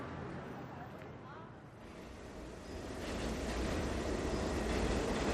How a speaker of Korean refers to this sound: 피곤한 몸을 손잡이에 기댄 채 전철에 흔들리며 집으로 돌아가면서도 내 마음은 충만했다.